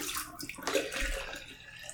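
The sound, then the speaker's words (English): Distilled water pours steadily into a container for a final rinse, a continuous splashing rush with slight gurgles, heard alone without any talking. “And so for a last and final rinse, I do use distilled water”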